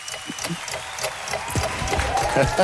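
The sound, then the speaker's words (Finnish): Scattered hand claps of applause, moderately loud, with irregular sharp bursts running through a murmur of background voices. “Kyllä täältä äidinkielen mm. opettaja, henkinen sellainen, laittaa aplodit.”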